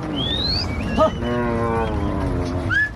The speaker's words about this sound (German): scheucht gleich eine ganze Rinderherde auf die andere Seite